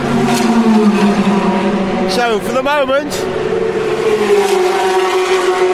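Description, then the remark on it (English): Race cars at a 14-hour endurance race droning steadily with loud, layered engine tones that rise and fall as they drive past, while a person speaks briefly over the constant motor noise. “And it's good night from me, and I think we'll just sit here and listen to these cars for a few minutes before we hit the sack ourselves.”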